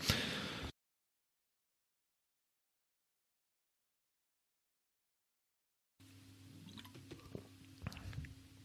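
A quiet sip of water: a short burst of noise, a long silence, then soft wet mouth clicks and a swallow over a faint steady hum.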